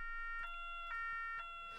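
A two-tone ambulance siren wails steadily, flipping between its high and low notes about every half second, heard on its own at a moderate, even level.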